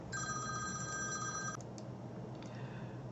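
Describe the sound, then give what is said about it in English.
An electronic phone ringtone for an incoming call from the speaker's wife trills steadily for about a second and a half, then cuts off abruptly, followed by a couple of faint clicks and a softer tone over a low background hum. “All right, that was my wife giving me a phone call from school.”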